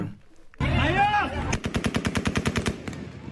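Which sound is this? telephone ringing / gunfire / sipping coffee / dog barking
gunfire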